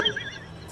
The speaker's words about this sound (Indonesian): ini ada suara Mobile Legend itu